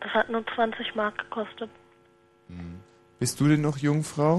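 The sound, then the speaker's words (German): A steady electrical hum from a cheap telephone drones faintly and continuously beneath a man's speech, staying audible in the pauses, with a short hummed syllable in between. “Äh, sag mal, was brummt denn da so? Das ist mein Telefon.”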